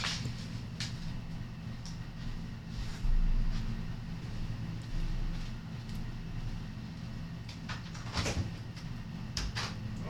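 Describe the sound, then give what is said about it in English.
A door is opened and shut in answer to someone knocking, giving a few sharp knocks and clatters over a steady low rumble, with nobody talking. “Answer the door, but they can't come in right now.”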